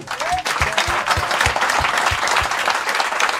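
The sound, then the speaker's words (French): An audience at an evening concert claps steadily and enthusiastically for the musicians, a dense wash of hand claps with no break, while rhythmic low thumps pulse underneath. “Donc je tiens à vous remercier chaleureusement et je pense qu'on peut tous les applaudir.”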